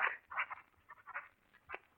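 A duck quacks several times in quick, uneven succession, raspy nasal honks with brief pauses between them and no other sounds around.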